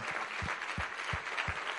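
A crowd applauds steadily in a dense wash of clapping, with a regular low thump pulsing underneath roughly every third of a second; applause offered to the Holy Spirit in the name of Jesus during a church prayer.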